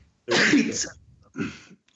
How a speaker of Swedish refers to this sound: Den som hörde vad jag sa i nysningen vinner en burk Rich Energy.